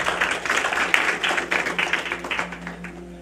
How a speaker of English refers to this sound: Applause, applause, round applause.